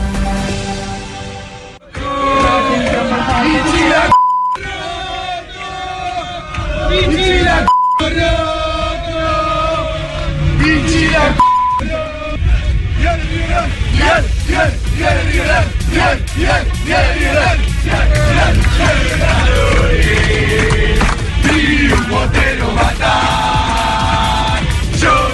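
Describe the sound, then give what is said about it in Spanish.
River Plate football fans chant and shout loudly together aboard an airplane against José Luis Chilavert, a dense wall of voices rising and falling in rhythmic bursts, with a few brief breaks and occasional beeps cutting through. “Eso es audio en pleno avión hinchas de River Plate contra José Luis Chilaver, un amigo más,”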